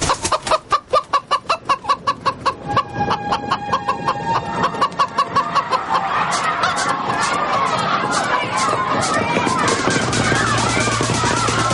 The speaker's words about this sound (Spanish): En el pasillo de un hotel, una limpiadora ve pasar a una gallina.